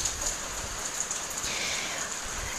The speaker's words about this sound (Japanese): でも雨なんですよね、今日。休みでも。